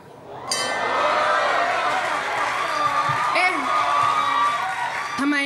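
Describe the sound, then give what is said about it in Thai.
A loud bell starts abruptly and rings continuously for several seconds, bright and metallic, with crowd noise and voices murmuring underneath. “ระฆังดังไวกว่าตอนซ้อม”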